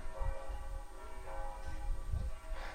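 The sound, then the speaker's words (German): Church bells ring continuously as a blind football match is about to start, their overlapping tones humming and swelling with a few deeper strikes, with no voices present. “Es kann aber wohl dennoch jetzt losgehen, auch wenn die Kirchenglocken noch zu hören sind.”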